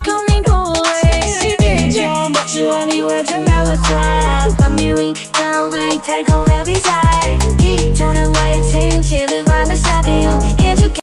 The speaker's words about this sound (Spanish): música hip hop, pero donde hay un vocalista masculino rapeando y una vocalista femenina cantando en forma de rap. Bueno, con un montón de criterios que se están poniendo dentro del prompt. Y esto suena.